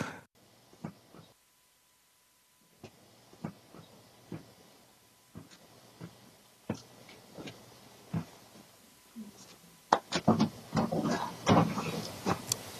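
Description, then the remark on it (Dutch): An old vintage television set is handled and put down at a front door: a series of sharp knocks and hollow clunks at irregular intervals, building to a louder cluster of bumps and rattles at the end. “Het klinkt gewoon als een tv, die wordt neergezet bij de voordeur, maar is toch leuk.”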